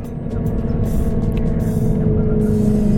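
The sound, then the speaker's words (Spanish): Steady engine rumble inside a moving bus leaving Puerto Plata for Santo Domingo in the Dominican Republic, with a constant low drone and faint hum throughout, no voices. “Te saludo hoy desde un autobús, un autobús que va saliendo de Puerto Plata, conocida también como la Perla del Atlántico, con destino a Santo Domingo, capital de la República Dominicana.”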